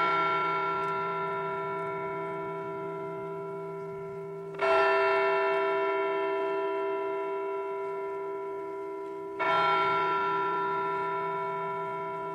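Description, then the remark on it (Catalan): A deep church bell tolls slowly, about three strikes spaced roughly five seconds apart, each stroke ringing out and fading gradually into the next. No voices are present. “Els dos bailets van tornar al seu llit, però no les tenien totes, i així que van aclocar l'ull, de nou van sentir la campana.”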